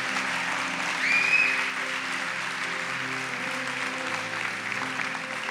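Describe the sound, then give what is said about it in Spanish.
An audience claps steadily for several seconds, a dense wash of many hands that swells briefly early on, with one short high whistle cutting through. No one speaks. “por favor, con un aplauso.”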